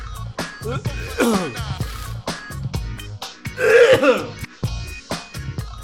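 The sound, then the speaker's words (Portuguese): A person loudly clears their throat and hacks up phlegm several times in a row, with harsh, gravelly rasps and short coughs and no speech. “O podcast Escarrando e Tossindo.”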